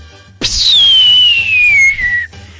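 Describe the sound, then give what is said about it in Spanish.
A voice imitates a whistling firework: one loud, steady whistle that starts high and glides slowly downward for about two seconds before cutting off abruptly. “No, piensan que las bombas, esas bombitas así de... Hay unos que hasta chiflan, esos, esos no hacen ruido, esos no truenan como tal.”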